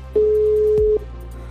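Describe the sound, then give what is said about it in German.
A single steady telephone ringback tone sounds for just under a second while a phone call is being placed, a clean sustained electronic beep heard clearly over a low background hum, with no talking. “versuche ich doch jetzt einfach mal, ja, Paige's Sub ans Telefon zu kriegen”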